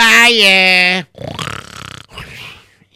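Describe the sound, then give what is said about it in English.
A voice makes a loud, drawn-out snorting grunt that imitates snoring, lasting about a second, during Gemara study, then gives way to muffled talking and rustling. “very hard to say the Gemara if you're snoring away like that.”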